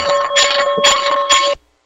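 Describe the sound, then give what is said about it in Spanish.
A church bell rings nearby, loud and clangorous, with three quick strokes over a sustained ringing tone that cuts off abruptly. No one speaks over it. “Laurencio, ¿esa campana es de su iglesia?”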